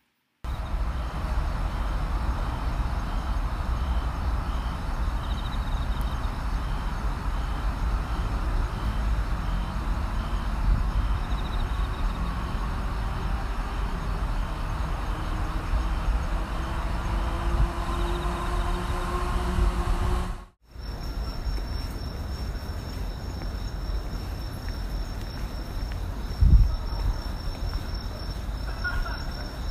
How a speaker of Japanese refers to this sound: そして次は私の大阪中心部にあるお家の近くに、えー、の公園の、えー、秋の始まりの虫夜の虫の鳴き声です。聞いてみてください。